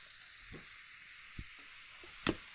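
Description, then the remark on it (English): A steady, soft fizzing hiss of a red, copper-amber beer being poured into a rinsed glass, with a few faint clinks and small pops scattered through it. No one speaks. “Let's give it a pour.”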